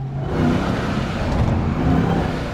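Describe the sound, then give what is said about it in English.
A Ram 1500 TRX pickup truck's engine roars and revs loudly, a continuous deep rumble with rising throttle surges across the whole stretch, with no voices. “That's the Ram 1500 TRX.”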